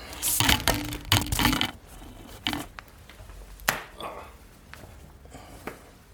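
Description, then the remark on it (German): A window being shut: a burst of rough rattling and rustling handling noise, a few softer knocks, then one sharp, loud click as it latches, followed by faint fumbling sounds. “Ich werde nur mal ganz kurz das Fenster zumachen tatsächlich.”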